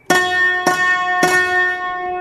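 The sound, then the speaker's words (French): Three bright, metallic-edged piano notes from a mandolin stop, hard wooden hammers striking slightly thinner strings and giving each strike a sharp attack, evenly spaced and ringing on with sustained overtones, with no talking. “le marteau est en bois sur des cordes un peu plus fines.”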